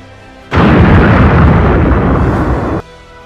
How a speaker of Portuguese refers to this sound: E o AT-AT explodiu. Ok. Uma explosão gigantesca que te arremessa por uns 9 metros e tu cai embalando no chão.